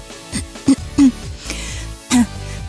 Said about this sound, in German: beginnt sie und räuspert sich abermals, weil der verdammte Kloß ihr die Stimme nimmt.